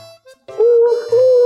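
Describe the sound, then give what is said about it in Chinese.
A voice imitates an owl hooting for the proud owl in a story being told aloud: a loud, drawn-out "woo" that breaks briefly and resumes, a steady mid-pitched tone lasting about a second, after a couple of faint short sounds. “猫头鹰骄傲地挺起胸，大叫”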